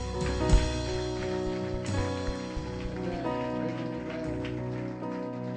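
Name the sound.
audience clapping in praise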